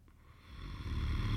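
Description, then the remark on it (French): A deep, rumbling snore from a bedroom at the end of a corridor swells steadily louder over a second or so, low and throaty, with no voices around it. “à peine couché dans son lit, elle, entendit venant du bout du couloir, en direct de la chambre du diable, des ronflements énormes semblables à des tremblements de terre.”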